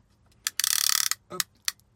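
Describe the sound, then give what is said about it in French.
A plastic ratchet clamp on a car phone holder tightens around an iPhone 6 with a rapid burst of bright clicks, followed by a few separate sharp clicks and a soft rattle, with no talking. “on va serrer et puis on va essayer de le mettre comme ça.”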